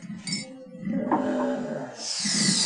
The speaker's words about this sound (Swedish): Jag håller på och fyller på här nu med godsakerna. Ja. Mjölk och sånt. Så att jag är lite... Hör när jag rör.